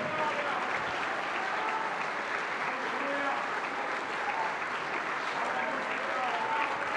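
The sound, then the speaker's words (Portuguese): Sustained applause from a large audience, a dense, steady wash of clapping at constant loudness for several seconds with a faint murmur of voices mixed in. “Vamos aplaudir mais.”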